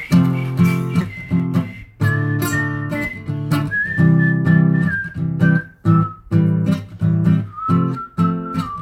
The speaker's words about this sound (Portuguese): Eu não sei assobiar.